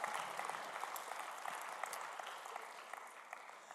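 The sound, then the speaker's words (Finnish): Steady audience applause fills the whole stretch, a dense wash of many hands clapping at an even, sustained loudness with no voices on top. “No niin, annetaan äijille aplodit.”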